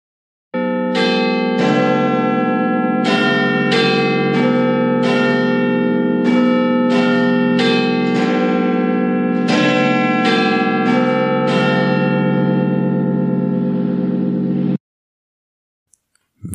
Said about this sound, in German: Und das, was wir jetzt im Hintergrund hören, ist der Glockenschlag eines ganz bekannten Londoner Wahrzeichens, nämlich des Big Ben. Und der hört sich so an.